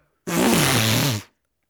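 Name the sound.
imitated fart noise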